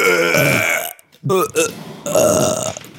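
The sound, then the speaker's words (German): Several people belch loudly together, a long, raspy group burp, followed by a brief lull, a couple of short voiced bursts, and then another drawn-out burp. “Gemeinsamer Rülpser.”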